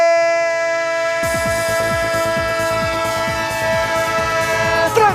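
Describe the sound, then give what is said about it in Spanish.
A train sound effect on Onda Cero's Radio Estadio, for its midweek round: a loud, sustained multi-tone train horn holds throughout, joined after about a second by the steady rhythmic clacking of rolling train wheels. No one speaks. “El tren de Onda Cero, el tren de la intersemanal, que no es una línea, no, no, no, no, no.”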